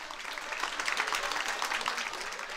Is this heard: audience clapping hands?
yes